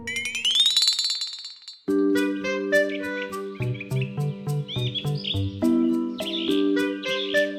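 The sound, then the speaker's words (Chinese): A cartoonish rooster crow at sunrise rises in pitch and holds a shrill note for under two seconds, then a bright, bouncy tune of plucked and chiming notes takes over. No one speaks. “隔天，太阳公公出现了，公鸡好努力地啼叫着。”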